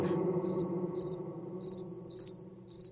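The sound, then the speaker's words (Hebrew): Crickets chirp in short, evenly spaced trills, about five bursts over a few seconds, sitting clearly above a low, steady background hum. No one speaks. “חמש שנים של צרצרים, חמש שנים של כלום, כלום, כלום.”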